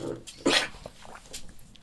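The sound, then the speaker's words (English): A puppy named Pepper lets out a sharp bark, followed by a few softer whimpering yips while trying to climb onto someone's lap, with faint background noise. “The puppy is trying to climb onto”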